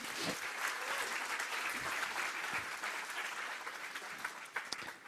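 Steady applause from an audience welcoming a speaker at a Christian testimony gathering fills the whole stretch, a dense wash of many hands clapping at once, loud and continuous without letting up.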